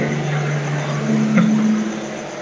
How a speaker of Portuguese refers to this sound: É, oh, o caminhão quase te atropelou aí?